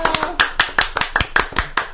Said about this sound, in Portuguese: Palmas pra mamãe!